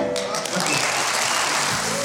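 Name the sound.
applause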